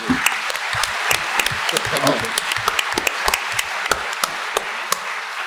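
An audience breaks into applause, a dense, steady patter of many hands clapping with sharper individual claps standing out throughout.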